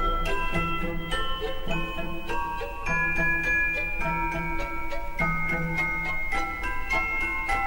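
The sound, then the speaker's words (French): A celesta, an instrument played from a keyboard, plays a steady melody of bright, bell-like notes, each struck cleanly and ringing on with a soft shimmer over a low sustained accompaniment. No one speaks. “Et Célestat, le Célestat, ça a un son de xylophone mais qui sera actionné par un clavier.”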